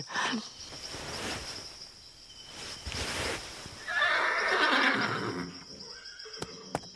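A horse neighs loudly, its whinny rising and shaking for a couple of seconds amid a steady insect-like hiss and light rustling outdoors, followed by a few sharp clicks.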